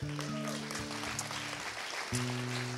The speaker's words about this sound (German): Können wir mal uns selber einen riesen Applaus geben? Einfach, ja.